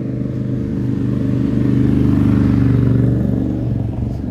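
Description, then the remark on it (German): A loud motorcycle engine rumbles past, its low throbbing growl swelling to a peak in the middle and then easing slightly as it moves on. “Okay, Motorrad ist laut.”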